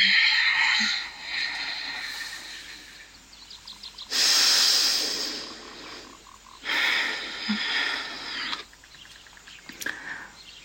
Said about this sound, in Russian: Это целебное дыхание.